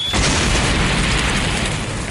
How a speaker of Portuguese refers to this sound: Consegue captar e concentrar a energia de Torijin e a joga de volta, causando uma forte explosão e uma densa fumaça.